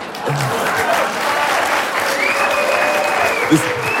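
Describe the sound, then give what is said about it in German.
An audience applauds steadily, a dense wash of clapping hands that holds an even level throughout, with faint murmuring voices and a brief whistle-like tone threading through the noise. “Er, er, hat noch nie Applaus bekommen in all den Jahren.”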